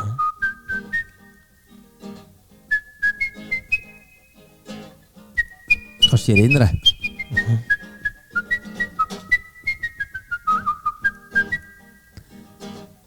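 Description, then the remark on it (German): Someone whistles a lively, bouncy tune in clear, stepwise phrases for several seconds, with a brief murmured exchange and a short noisy burst midway before the whistled melody resumes. “Wenn du da auf den Baustelle bringst, dann pfeifen alle.”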